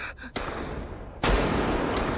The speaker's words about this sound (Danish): Der blev fyret mange skud.